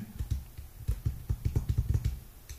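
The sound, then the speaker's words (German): Rapid, irregular clicking of keys being typed on a Windows computer keyboard connected to an iPhone, moderately loud, with short bursts and pauses over a few seconds and no one talking. “So, jetzt habe ich die, jetzt habe ich die Tastatur an.”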